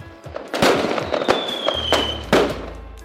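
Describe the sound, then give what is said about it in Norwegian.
Fireworks explode on New Year's Eve in a rapid, irregular series of sharp cracks and booms, with a loud burst near the end and a thin whistling whine trailing across the middle. No voices. “Nyttårsaften klokka 23.59. Man står der i fem minusgrader med litt for lite klær, stjerneskudd i handa mens man skuer etter glimt av fyrverkeri”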